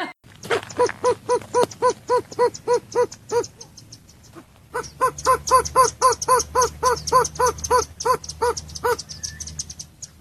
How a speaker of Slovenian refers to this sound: Ja, tako da slišite, da se bolj sliši ena gozna kura, oziroma tudi ima te počasne kukuje, se pravi, ne mik, mike.